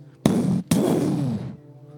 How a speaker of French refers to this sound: À peine ai-je fini de les lire que deux explosions coup sur coup surviennent.